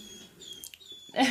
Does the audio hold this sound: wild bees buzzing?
no